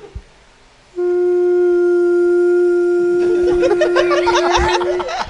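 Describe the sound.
A voice imitates a sound-system feedback squeal during church music, one long, steady, unwavering whine held for about four seconds, while bursts of laughter and chatter break in over its second half.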